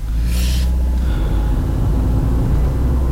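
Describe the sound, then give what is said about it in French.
A car's engine drones steadily from inside the cabin as the driver looks for a place to park, a loud low rumble throughout, with a brief hiss of passing noise near the start. “donc là, je cherche à me garer.”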